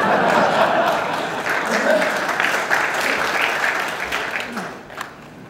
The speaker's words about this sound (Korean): 한 분 박수 치신 박수를 주세요. 언제 박수 치신 분 나중에 제가 언제 조용히 한번 따로 모시겠습니다.